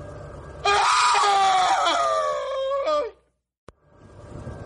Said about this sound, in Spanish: Mi amigo y yo comenzamos a correr. Gritamos y lloramos como locos y seguimos corriendo.